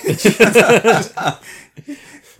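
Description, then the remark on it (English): A loud, harsh ambulance siren wails in rapid rising-and-falling warbles for about a second, then cuts off, leaving faint hissy noise and a few soft blips. “that is like the worst siren I've ever heard.”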